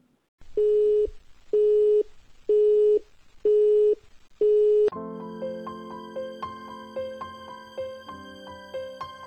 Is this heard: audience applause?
no